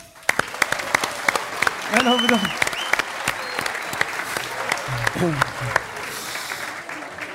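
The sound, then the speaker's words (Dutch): Audience applause with scattered, sharp claps filling the whole stretch at a steady moderate level, while a voice briefly speaks over it twice. “Applaus voor”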